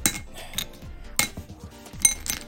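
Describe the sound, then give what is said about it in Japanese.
Chopsticks clink against a plate a few times at irregular intervals while picking up melting candy pieces that stick to the plate and chopsticks: sharp taps with bright ringing tones and small scraping touches between them, no voices. “ちょっとね溶けてるんでは皿についたりですね、えー、箸についたりしてちょっとこれ”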